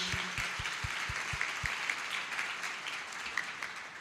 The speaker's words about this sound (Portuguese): eu vou te convidar a aplaudir o Senhor pela vida delas, porque foi um presente para nós.